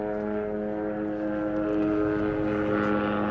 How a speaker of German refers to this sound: Jetzt fliegt hier der Helikopter durch, ich hoffe, ihr hört es noch. Uh wo ist er? Hier hin. Helikopterlandeplatz gibt es hier, gleich um die Ecke.